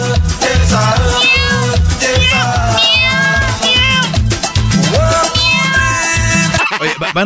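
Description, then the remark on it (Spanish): Repeated cat meows, rising and falling, run over a loud, steady thumping beat, with several overlapping mewing calls throughout the music. “Todos sabemos quién son las gatas.”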